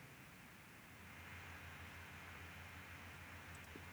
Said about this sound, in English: Oh, that's uh, sorry. My computer vent or something must be covered. Oh, is sorry. your computer like like ramped up? The fans ramped up.